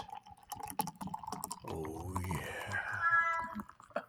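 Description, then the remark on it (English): A cat named Grayson lets out one long, drawn-out meow, rising and wavering. It is preceded by faint clicks and the trickle of liquid being poured out of a can. “Oh, Grayson is making an appearance on the podcast.”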